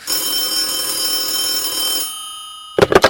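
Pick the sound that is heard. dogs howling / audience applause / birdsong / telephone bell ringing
telephone bell ringing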